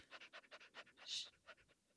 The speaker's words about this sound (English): I'm listening to the dog over here. I'm hugging your dog, mm-hmm.